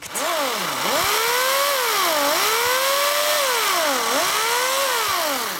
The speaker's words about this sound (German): Es ist der Klang von einer elektrischen Motorsäge.